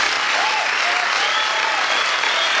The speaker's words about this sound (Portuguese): Família, negócio é o seguinte, infelizmente acabou, quero muitos aplausos para...